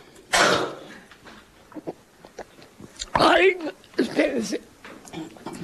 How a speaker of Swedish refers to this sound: Ingenting speciellt, behöver hosta lite här mellan varven.